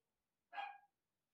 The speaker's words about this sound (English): Don't know if you can hear the dogs barking. We're just gonna ignore him, pretend that he's not. I hate when he does this, buddy.